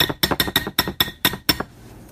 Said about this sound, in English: And to that, we add a half a cup of cheese and stir that in. You see the cheese are stirring and beans are hooking there too.